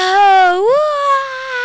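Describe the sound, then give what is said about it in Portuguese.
A single voice imitates a football stadium crowd cheering a goal, with one long, loud, breathy "aaah" held for under two seconds, its pitch rising partway through and then staying steady. “É, até para jogar futebol, por exemplo, às vezes não tinha um coleguinha para jogar bola em casa, jogava bola sozinho, simulava que eu estava fazendo gol ali, que tinha uma torcida, imaginava.”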